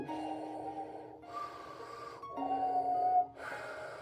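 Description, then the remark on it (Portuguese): A voice imitates Darth Vader's heavy, mechanical respirator breathing: slow, hissing inhale and exhale cycles, fairly loud, with no talking. “Eu tenho aqui que dizer, da primeira vez que o Darth Vader, ele nem entrou em cena, só viu a respiração dele que é a respiração pesada.”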